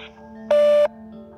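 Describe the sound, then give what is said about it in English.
A single steady electronic voicemail beep after a voicemail greeting, a clean sustained tone lasting about a third of a second, loud and alone against a faint background hum. “If you are a resident of Pine Hollow, or if you have any information pertaining to the gate or to Remy, state your business after the beep.”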